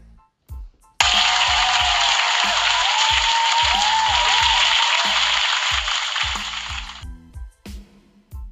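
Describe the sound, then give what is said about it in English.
A burst of audience applause starts abruptly, holds as a dense, steady wash of clapping for about six seconds, then tapers off, over a rhythmic low beat that continues underneath. “Round of applause for you motherfuckers in the building.”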